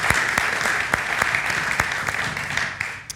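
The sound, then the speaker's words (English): Steady, dense applause from a crowd at a five o'clock gathering, applauding people for a decision they have just made, with many overlapping hand claps forming a continuous wash of sound and a few sharper individual claps standing out. No talking. “And so we here at five o'clock, we want to give you a round of applause for the decision you've just made because there is nothing better than what you have just done.”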